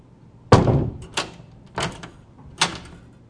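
An old wooden door with a knob lock styled in wood grain swings shut with a heavy thump, followed by three softer knocking rattles of the latch settling, spaced unevenly over a few seconds, with no talking.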